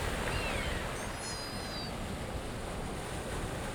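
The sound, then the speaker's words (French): A steady, loud roar of raging sea and gusting wind after a night-long storm fills the whole recording, with faint high whistling tones briefly riding over the churning water noise. No one speaks. “La mer est déchaînée.”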